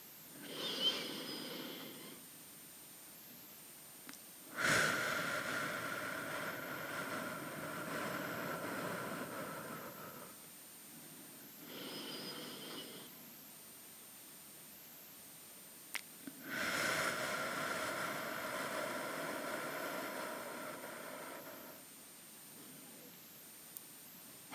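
Slow, deep breathing during a guided breathing exercise, with long, airy inhales and exhales of about six seconds each, separated by short quiet pauses. The breaths are steady and moderately loud, with no talking.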